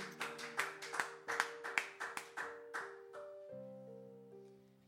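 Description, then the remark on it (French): A group claps in a steady rhythm to applaud God over sustained keyboard chords, the sharp claps fading out after about three seconds while the held chords continue alone. No one speaks. “Est-ce qu'on peut applaudir notre Dieu qui nous dit que si nous croyons, nous verrons sa gloire nous verrons sa gloire au nom de Jésus-Christ.”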